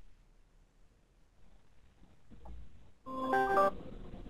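A mobile phone connection cutting out: faint low hiss and rumble, then a short, loud burst of buzzy, tonal digital glitching near the end, with no one talking.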